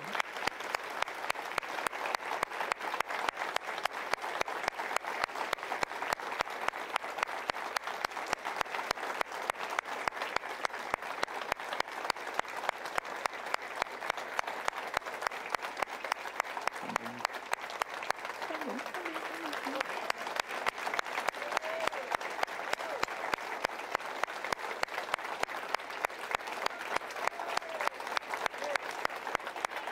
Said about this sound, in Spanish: Quiero que se pongan en pie, hermanos. Y quiero que le den gracias al Dios que les dio un fiel pastor. Amén. Todos fuertes. Un fuerte aplauso.